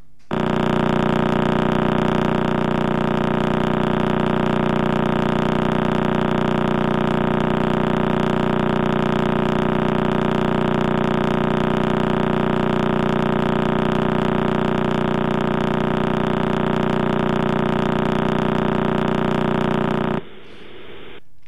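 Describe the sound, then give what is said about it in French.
The Crab pulsar's radio signal turned into sound, from a neutron star left by a supernova spinning 30 times per second: rapid pulses merging into a loud, steady, engine-like buzz that holds unchanged for about twenty seconds, then cuts off abruptly. “cette euh, explosion et retrouvé le cœur de, la supernova, donc cette étoile à neutrons qui tourne sur elle-même. pulsar du crabe que l'on écoute.”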